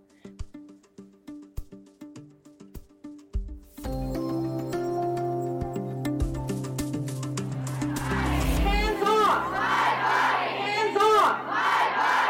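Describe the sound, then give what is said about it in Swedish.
Sparse plucked notes and soft thumps open, then a loud crowd of demonstrators at an abortion rights rally in Washington DC surges in, chanting "Hands off my body" together in a sustained, rising roar that grows stronger toward the end. “skanderar demonstranterna på en manifestation för aborträtten i Washington DC nyligen”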